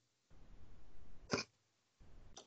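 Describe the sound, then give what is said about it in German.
A cat retches as if bringing up a hairball: a raspy, breathy heave that builds into a sharp gagging jolt, then a second heave begins. No talking. “Hat sich angehört, wie der halt, irgendwie gerade seine Katzenhaare hochwirkt oder so.”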